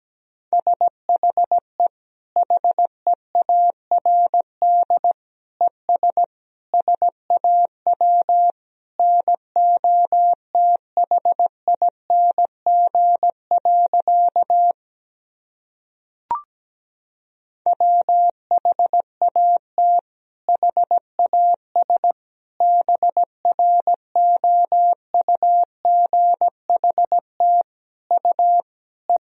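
Morse code sending a practice sentence from the top 500 words and abbreviations, as a steady single-pitched tone at about 17 words per minute, short dits and longer dahs in rapid runs with a brief pause midway, plus one faint click.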